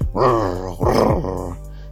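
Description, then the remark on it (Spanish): A voice imitates a dog growling: two loud, rough, drawn-out growls in quick succession, low-pitched, fading into a softer rumble at the end. “pero este que le encaja los dientes en el cuero de la nuca y entonces sí el matalote ya no pudo moverse, nada más lo intentaba y el perro le gruñía”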